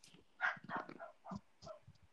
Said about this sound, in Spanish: Ahora sí se escucha tu perro. Ahora se, ay, pobrecita mi Blanca. Oye, que ladra cada vez que pasa gente.